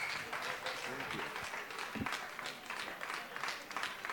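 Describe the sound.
Sustained audience applause, a dense wash of many hands clapping at steady loudness throughout, with some voices mixed in beneath the clapping.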